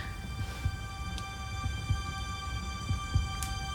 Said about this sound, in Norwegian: Det er Julius Selma hører. Det er de samme hjerteslagene hun har hørt siden Julius ble borte.